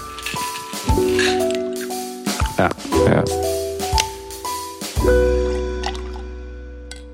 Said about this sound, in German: Kannst du da noch Eiswürfel reinmachen, bitte? Ich schwitze. Da sind sie, da sind sie, die Eiswürfel.